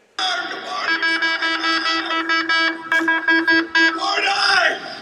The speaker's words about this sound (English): Here it is, 6 a.m. Uh, Florida uh, Gators teams coming in for their for their weight room and starting their day, man. 6 a.m. and he's got an air horn.